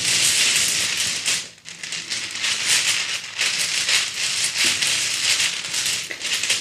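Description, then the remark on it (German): Dice rattle and clatter continuously as they are shaken and mixed for a dice game, a dense, bright rattling that dips briefly once before resuming steadily for several seconds, with no talking. “Ich würfel, äh, ich mische nochmal die Würfel ja. durch.”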